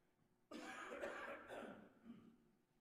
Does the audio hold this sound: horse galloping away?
no